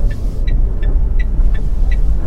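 A car's electronic, not mechanical, turn signal ticks steadily, six crisp clicks at a quick even pace, over the low rumble of the vehicle's interior and engine while driving.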